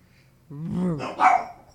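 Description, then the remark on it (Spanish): A dog lets out a muffled, strangled bark with its mouth full of a ball: one drawn-out, whiny vocalization followed quickly by a second, rougher burst. “es que está ladrando mientras tiene la pelota en la boca, entonces escucha como...”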